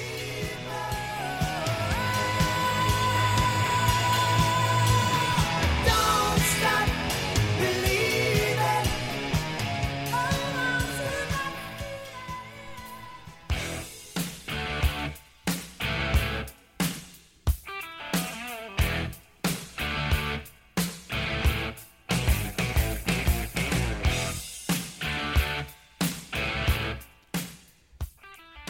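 A loud hard rock song with a dense, full band sound, shifting halfway into a choppy, stop-start guitar riff punctuated by sharp, rhythmic hits. No one talks over it.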